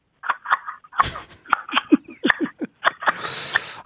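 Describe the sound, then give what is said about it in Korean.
A person mimics a magpie's harsh chattering call with a rapid series of short, scratchy bursts, fairly loud, ending in a longer noisy rasp. “까치, 까치에서 마지막 기대 걸어봅니다.”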